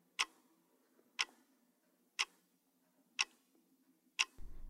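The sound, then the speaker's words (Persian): A clock ticks steadily, five crisp, sharp ticks spaced about one second apart, clear against near silence, with a faint low hum entering at the very end. “تیک‌تاکِ فرساینده‌ی عقربه‌های ساعت”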